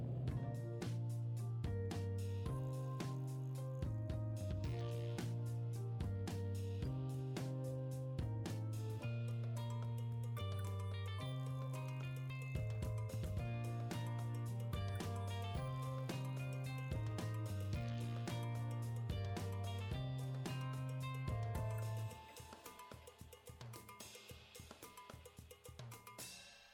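An upbeat instrumental theme tune with a steady, bouncing bass line and bright percussive hits, playing loud and continuous before dropping to a quieter fading tail near the end. No voices.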